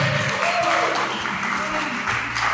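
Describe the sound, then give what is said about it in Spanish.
An audience claps hands in a dense, steady burst of applause lasting a couple of seconds, with faint voices and a low sustained tone mixed underneath. “¿Cuánto dan palmas al que vive?”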